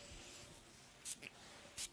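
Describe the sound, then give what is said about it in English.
Two short, hissing sprays from a cologne bottle nozzle, each a quick airy burst about three-quarters of a second apart, fairly quiet, with a faint tick between them. “You know, I've even taken a break from wearing fragrances, uh, not too long, but uh, but man, when you spray this out of the nozzle, bro, Mr.”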